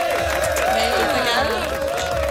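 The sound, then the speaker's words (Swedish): A studio audience of the Swedish TV show Paradise Hotel breaks into loud, steady applause mixed with cheering and whoops, welcoming two eliminated contestants into the studio, a dense continuous wash of clapping that holds at full strength for the whole couple of seconds. “Ni ska få en varm applåd.”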